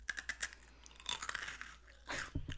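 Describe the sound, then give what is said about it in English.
Crisp crunching of honey-topped tempura seaweed chips being bitten and chewed, a run of sharp brittle snaps with a louder crunch burst near the end, no talking. “Ooh, that crunch is very like ASMR.”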